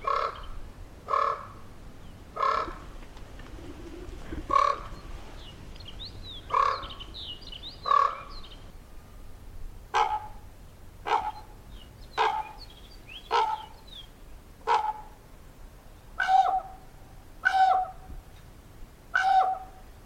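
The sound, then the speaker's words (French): A crow that has just landed on a streetlamp opposite caws over and over on a foggy morning, harsh, clipped calls repeating steadily about once a second, fairly loud, with fainter chirpy notes in between and no talking. “C'était un corbeau. Qui vient de se poser juste en face sur le réverbère.”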